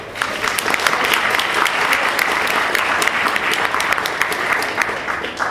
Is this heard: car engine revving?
no